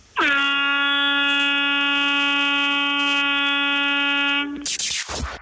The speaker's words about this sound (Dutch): Ja, dat was hem dan hè, op het einde, de toeter. Ja, ja, dat was de fameuze toeter. Want dit is bijna twintig jaar geleden. Het is al heel lang geleden dat je dit nog hebt gehoord, eh, veronderstel ik.